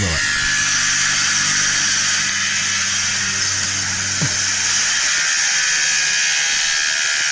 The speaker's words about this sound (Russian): Это, это звуки ремонта всевозможного.